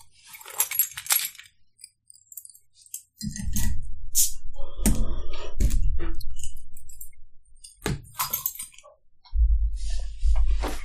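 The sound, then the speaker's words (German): Keys on a keyring jangle and clink in bursts of bright metallic rattling, then low scraping and fumbling as the cap of an Augustiner beer bottle is pried at with the keyring in place of a bottle opener, a soft pop-like thud, and more jingling keys. “Okay, dann muss der Schlüsselbund herhalten.”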